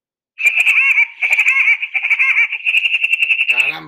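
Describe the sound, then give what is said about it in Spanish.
The laugh sound effect of the cartoon woodpecker Woody Woodpecker (el Pájaro Loco): a shrill, piercing cackle pulsing rapidly in a long, continuous run, loud, ending with a brief lower warble. “Pues, no, yo te pedí un loco, no el pájaro loco, hombre.”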